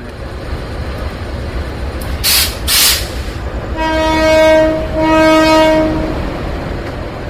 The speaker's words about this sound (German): neben der Herberge, ist bereits der Zug eingefahren.